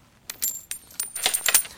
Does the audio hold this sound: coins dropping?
yes